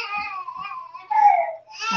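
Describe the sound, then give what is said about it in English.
A baby girl fusses and cries in short, wavering wails, rising into a louder, higher-pitched cry partway through, with strained whimpering sounds between the cries. “you guys, my baby's getting fussy.”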